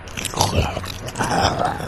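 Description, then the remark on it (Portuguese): A bite sound effect: two crunchy, chomping bursts, the second longer and more grinding, with no voices; a creature attacking and biting someone in the back. “E ele deu um ataque, que é a mordida.”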